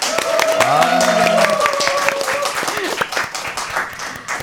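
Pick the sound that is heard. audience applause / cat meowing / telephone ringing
audience applause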